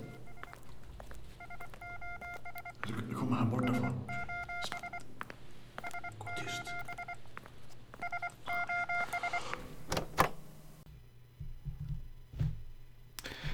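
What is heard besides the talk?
electronic beeping tones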